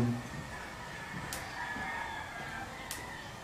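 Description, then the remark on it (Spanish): A rooster crows in a drawn-out, strained call that fills the moment, set against a steady background hum, with two brief sharp ticks cutting through. No one speaks. “¿Cuándo empezaste con los gallos?”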